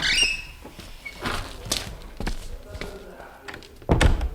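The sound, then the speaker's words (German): A door to a waiting room creaks and thuds shut amid several scattered footsteps and knocks, with a heavier thump near the end. “Die Tür dort.”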